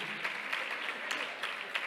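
A crowd claps steadily in a dense, continuous wash of applause, with a few sharper individual claps standing out; fairly loud and close, with no voices.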